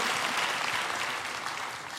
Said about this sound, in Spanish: Si vas a aplaudir, aplauda con todas sus fuerzas.